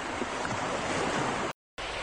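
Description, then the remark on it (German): Steady roar of ocean surf washing onto a beach, a broad continuous rush of breaking waves, briefly cut to silence before the surf resumes. “Am Strand.”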